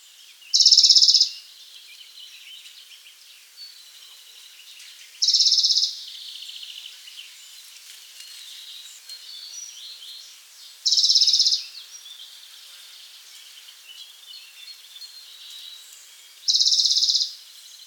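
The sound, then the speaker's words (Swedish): Eastern Bonelli's warbler song: four short, high trilled bursts repeated every few seconds, clear, over a faint steady insect hiss with no voices. “Vi följer upp direkt med en balkansångare.”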